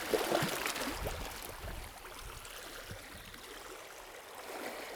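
nature, sea water lapping

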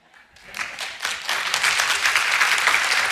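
crowd, audience applause in church

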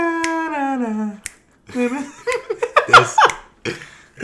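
human body sound, finger snapping

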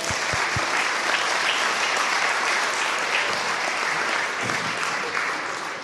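crowd, audience applause

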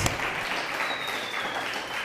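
fireworks rockets exploding outside

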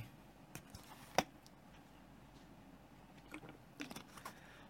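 food or drink, drinking water

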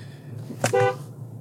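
vehicle, car horn honking

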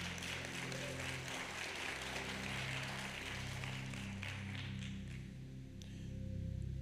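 crowd, audience clapping hands

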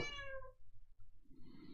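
animal, cat meowing

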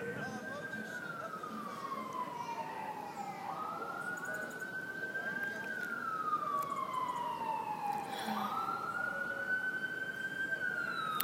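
vehicle, fire engine siren passing

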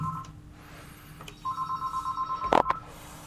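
signal or alarm, telephone ringing

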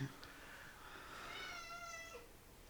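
animal, cat meowing

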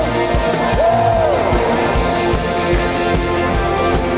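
crowd, audience shouting

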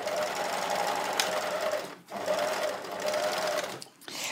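machine, sewing machine stitching

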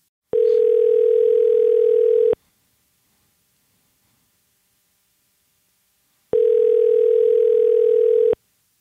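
signal or alarm, telephone call ringing tone

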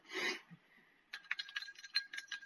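household object, stirring a cocktail

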